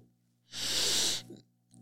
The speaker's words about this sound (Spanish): y vas a imaginar una ola que sube y luego baja con tu respiración entonces, vas a inhalar imaginando que la ola sube